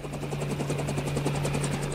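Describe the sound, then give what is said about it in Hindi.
A helicopter taking off and flying away with a group of people aboard; its rotor chops in a fast, steady rhythm over a constant engine drone, loud, with no voices. “snipers कुछ समझ पाते उसके पहले ही वो सभी लोग हेलीकॉप्टर में बैठे और वहां से निकल गए”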